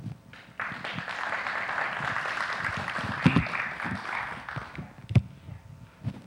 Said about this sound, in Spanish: Vamos a recibirnos con un fuerte aplauso, por favor.